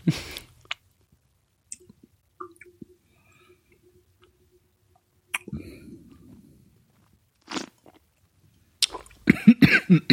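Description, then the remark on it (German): Someone coughs in several sharp bursts spread across the stretch, with quiet pauses between and a cluster of harsher, sputtering coughs near the end, after choking on wine. “mir auch noch verschluckt.”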